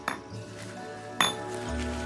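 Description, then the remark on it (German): Two bright glassy clinks, one at the start and a sharper one just past the midpoint, as loose shards of broken glass knock together while being pieced back together, with a faint ringing tail and no talking. “Also, Kollegen, ran ans Werk. Wenn keine Scherben fehlen, dürften wir erkennen, um was für Zeichen es sich handelt.”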